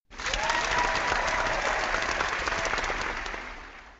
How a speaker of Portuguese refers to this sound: É isso daí, mas finalmente entramos depois de quatro anos na, no ranking geral dos podcasts no Brasil. O pessoal que quiser aplaudir, pode aplaudir.